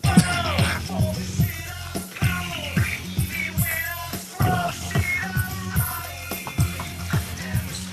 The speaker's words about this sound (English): Oh, it makes me want to mosh, man. Mosh. It makes me want to punch people. yeah, that song's retarded.